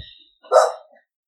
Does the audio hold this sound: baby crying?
no